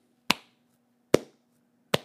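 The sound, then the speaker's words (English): Three single hand claps by one person, each sharp and loud with a brief ringing tail, spaced slowly and a little unevenly, over a faint low steady hum. No one speaks. “That's me clapping.”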